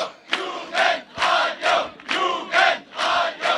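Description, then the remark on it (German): A large crowd in Dresden celebrates, cheering and chanting together in loud, rhythmic bursts, about two shouts per second, continuous with no single voice standing out, as champagne corks pop and people toast. “Hier knallen die Sektkorken und die Leute freuen sich.”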